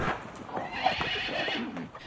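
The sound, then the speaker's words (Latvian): A horse of the Ungurs manor lord, driven up to the Ungurs church, whinnies loudly, its neigh rising and wavering, while hooves clip-clop steadily underneath for a couple of seconds. “Atbraucis arī Unguras muškungs. Piebraucis pie Lentera zirgus, gājis baznīcā iekšā.”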